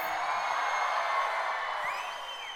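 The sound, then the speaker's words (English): A large church audience at Falls Creek cheers loudly and steadily for a couple of seconds at the call to open their Bibles, a dense roar of many voices with a few higher whoops rising near the end. “Now, if you're new to Falls Creek and you're wondering why we cheer at the statement, let's open our Bibles, here's the reason why is because the number one lost and found item in churches all across America is not umbrellas, it's Bibles.”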